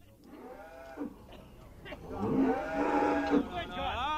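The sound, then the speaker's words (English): Cattle mooing on a fair day, a few overlapping calls building into one long, loud, drawn-out low before a rising final bellow, with faint murmuring in the background. “On fair days for a few bob, we minded cattle and looked important with ash plant and prattle.”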